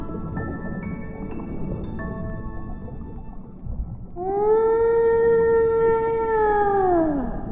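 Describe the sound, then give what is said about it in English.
Whale song: softer, higher tonal calls drift over a low watery rumble, then one loud, sustained moaning note rings out for about three seconds before sliding downward at the end. “They became real big inside Mr. Blue, and that's when he began to sing.”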